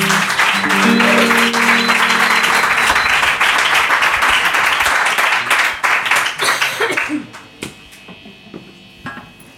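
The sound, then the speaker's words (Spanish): Loud, dense audience applause as the band resumes its set fills the first several seconds, with a low steady hum beneath it, then thins out into scattered individual claps before fading away. “Venga, pues con este aplauso retoman en el set lunero.”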